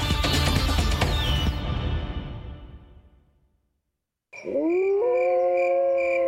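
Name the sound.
wolf howling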